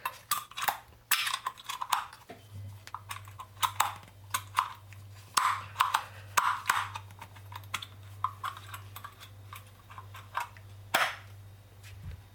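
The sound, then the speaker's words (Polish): A new metal espresso filter is pushed and wiggled into the machine with considerable force, making a series of irregular sharp metallic clicks and clacks over a steady low electrical hum. “Jak byłem w sklepie, oglądałem ekspres, a tutaj sprzedawca powiedział, że w sumie nic tu się nie stanie, trzeba to wcisnąć, co ja też teraz robię.”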